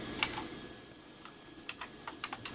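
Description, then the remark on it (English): Scattered clicks of a computer keyboard, a few quick taps then a short cluster of keystrokes, moderately quiet, with no talking. “I'm clicking a couple buttons here.”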